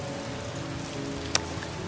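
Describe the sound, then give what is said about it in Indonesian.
Steady rain patters on a surface in a continuous soft wash, with one sharper drop or tap standing out near the end; no voices are present. “Jangan khawatir, ini hanya air hujan, bukan kotoran ayam.”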